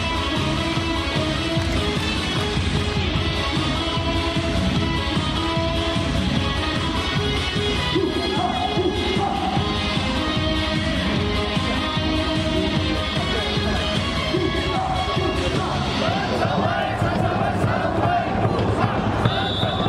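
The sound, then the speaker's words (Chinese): A baseball stadium crowd chants the brisk-tempo cheering song of player Chen Chen-wei in unison, loud and unbroken throughout, carried by a steady, driving beat beneath the massed voices. “那我们就来听一下陈晨威的应援曲吧。”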